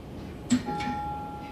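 A single sharp tap on ordinary glass, followed by a thin, clear ring that fades out after about half a second. It is fairly quiet, with no talking.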